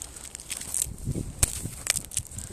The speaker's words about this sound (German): Handy ist mir gerade runtergefallen. Ist nichts passiert.